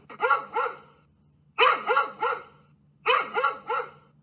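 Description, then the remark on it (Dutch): A dog barks in three quick bursts of two or three sharp woofs each, separated by short pauses, clear with a faint low hum underneath. “Het was het geluid van een hond.”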